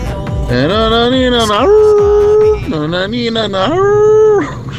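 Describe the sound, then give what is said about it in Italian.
A person imitates a wolf howl, several long rising and falling wails in a row, loud, with short breaks between them and no other sounds around. “Uh, ah, lupo, un lupo.”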